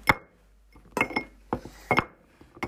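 Small objects repeatedly drop into a glass jar, giving bright clinking impacts in an uneven rhythm, about six or seven sharp hits with ringing tones, with no voices.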